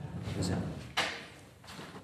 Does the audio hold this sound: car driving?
no